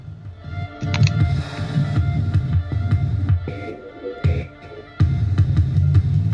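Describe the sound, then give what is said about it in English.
A phone beat remix: a gritty industrial-style electronic beat with heavy, throbbing low-end pulses and clanking mechanical hits, looping in a steady rhythm with brief drops and abrupt restarts, loud with no talking. “so here's the phone beat remix. Let's hear it.”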